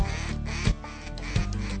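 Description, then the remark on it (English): Loud, rapid quacking from a high-ball duck call blown in a long hailing sequence, the raspy notes running together with a couple of sharper accented bursts, with no one talking. “come the ducks, hit the high baller.”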